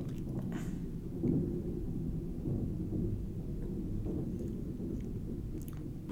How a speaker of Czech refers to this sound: Eh, ta dlouhá pauza byla proto, že nad naším studiem je eh, patro, kde občas, řekl bych, nějakým těžkým vozejku něco převážejí.